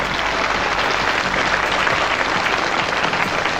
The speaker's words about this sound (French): Voilà, c'est une école de samba la plus prestigieuse, la plus luxueuse de Rio. Ils sont en France pour trois mois. On les applaudit, on les remercie, ils reviennent tout à l'heure.